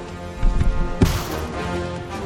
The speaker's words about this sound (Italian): I vetri del finestrino si sono crepati. Posso spingerli dall'interno.